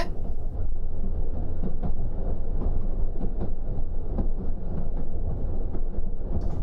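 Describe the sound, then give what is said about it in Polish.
Steady low rumble of a moving passenger train on the Kobrzyk–Warsaw route in Poland, heard from inside a carriage, with rhythmic faint clacks of wheels over rail joints and a continuous hum filling the space. “Obecnie w pociągu relacji Kobrzyk-Warszawa.”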